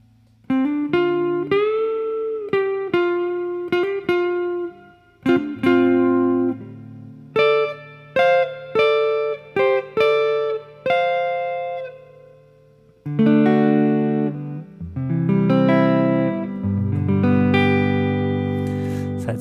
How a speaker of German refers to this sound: dieser typische Fender, klare, clean Sound. Das ist wirklich immer wieder ein Vergnügen.